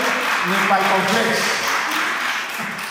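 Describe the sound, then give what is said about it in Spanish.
Light, scattered clapping from a small crowd, a thin steady patter of hands with some voices murmuring underneath. “¿Cuánto le dan aplauso al que vive en esta mañana? Muy aplausillo”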